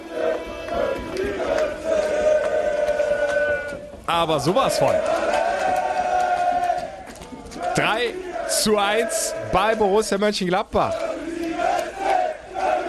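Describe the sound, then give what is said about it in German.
Hundreds of FC Köln fans at the Geisbockheim chant and roar loudly without pause, welcoming the team after a derby at Borussia Park amid a pyro show, voices rising in rhythmic, sung waves, while a man speaks briefly over the din. “Hunderte FC-Fans, Pyro-Show. Die Mannschaft kommt an und wird abgefeiert und das völlig zurecht.”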